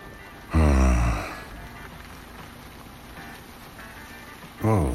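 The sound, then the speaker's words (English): Steady rain hisses throughout at a moderate level, with a loud, breathy vocal burst like a gasp near the start and another brief one at the very end. “Rain? Shit. Well, that's just perfect timing.”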